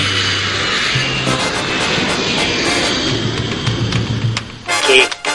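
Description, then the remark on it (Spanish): A loud, steady jet airplane roar fills the whole stretch, a broad whooshing engine rumble with a low hum beneath, swelling slightly near the end. “nos vamos volando en el jet imaginario de Leonardo Daniel Graso a Venezuela”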